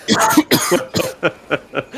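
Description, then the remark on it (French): A quick series of harsh coughs from several people, several in a row with short gaps, starting loud and bursty and tapering into lighter, evenly spaced coughs. “ça y est, je les ai fait tousser.”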